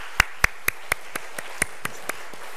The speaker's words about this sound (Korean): 오늘 처음 서셨던 식구들 우리 한 박수로 한번 귀한 식구들 한번 격려하겠습니다 감사합니다